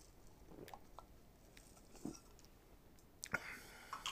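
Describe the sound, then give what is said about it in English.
A quiet sip from a drink: soft wet mouth clicks and a brief slurp, followed by a swallow and a few faint smacking sounds, with no talking. “let me take a sip”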